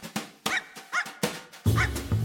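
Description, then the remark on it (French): A small Maltese dog named Trouble yaps sharply several times in quick, uneven succession, fairly loud, with a low steady hum rising underneath toward the end. “Pas pour Léona, qui décide de léguer 12 millions de dollars au seul être qui a su trouver grâce à ses yeux, son bichon maltais, Trouble.”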